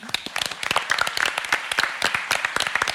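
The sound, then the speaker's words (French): A crowd breaks into applause for Ali, world champion once again after his fight against Foreman. Many hands clap in a dense, irregular patter that stays fairly loud and steady throughout, with faint voices mixed in. “Ali va gagner et j'aimerais qu'on l'applaudisse car il est encore une fois champion, du, monde.”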